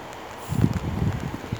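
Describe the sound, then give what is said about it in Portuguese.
Soft, steady hiss of a light drizzle, the first rain after many dry days, with irregular low patters of drops landing slowly, growing slightly fuller after the first half second; no voices. “Choveu depois de muitos dias sem chover e eu sinto as gotas caírem devagar me molhando.”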